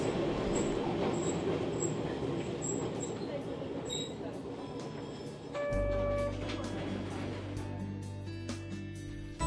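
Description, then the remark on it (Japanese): A vintage Type 251 streetcar of Osaka's Hankai tramway, formerly a Kyoto city tram that ran around Pontocho, rumbles along its rails, with steady wheel noise and a thin metallic squeal rising briefly midway, then a low humming motor drone as it continues. “それはね今はもうなくなっている電車ですが251型のことなんです元京都市電で走っていた電車で本都町辺りを走っていたからだそうですよ”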